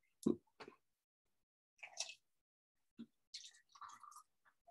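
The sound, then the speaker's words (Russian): Tea infusion draining from a brewing device with a button-operated valve after the button is pressed: a quiet series of short wet squishes, gurgles and drips in irregular bursts separated by silence, with no talking. “Ну, смысл в том, вот а, вы налили, нажали на кнопочку, вся вода слилась.”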